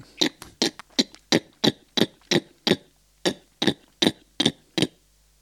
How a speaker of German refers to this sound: Seitliches Zungenschnalzen, konzentrier dich mal.